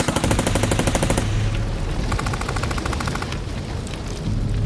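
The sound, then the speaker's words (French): Rapid bursts of Kalashnikov assault rifle fire crackle loudly, sustained automatic volleys with brief pauses between bursts, fired by holed-up criminals at police during a raid assault, no voices heard. “Pour seule réponse, il obtient les rafales de Kalachnikov.”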